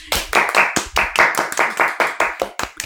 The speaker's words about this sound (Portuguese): Palmas para o Manta!